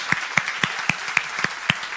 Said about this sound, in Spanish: Y mira todos estos hijos. Aleluya, un aplauso. Todos estos hijos.